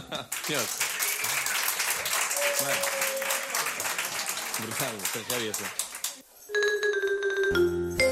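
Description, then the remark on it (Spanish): A seated concert audience applauds steadily for several seconds with voices mixed in, then the clapping gives way to upbeat music with a sustained melody near the end. “Aplaudir y cantar, ¿vale?”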